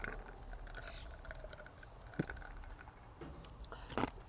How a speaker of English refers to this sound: Oh, sorry, I'm crunching ice.